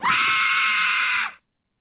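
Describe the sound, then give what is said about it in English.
A single loud, shrill scream held steadily for over a second before cutting off abruptly into silence, piercing, with no talking around it. “but before you scream and, and, and blow out our eardrums”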